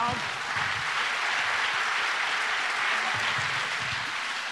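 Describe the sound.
An audience breaks into loud, steady applause that holds for several seconds at an even intensity, a dense wash of many hands clapping, with faint voices occasionally showing through underneath.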